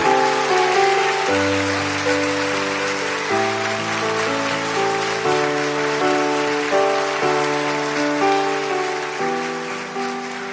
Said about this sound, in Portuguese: Mais palmas para todas as vovós, todas as vovós.